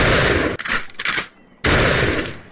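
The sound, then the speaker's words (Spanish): Loud gunshot bangs with harsh, noisy blasts that crackle and rumble, briefly dropping away before another heavy burst of gunfire erupts. No voices are heard. “Gobo pegó un salto en el aire en el preciso instante en que se oyó el estampido.”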